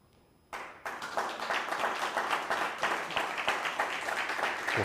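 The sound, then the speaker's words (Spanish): A studio audience bursts into sustained applause after a brief quiet moment, many hands clapping densely and steadily at a fairly loud level, with no one speaking over it. “Bueno, pues ahora sí, un fuerte aplauso.”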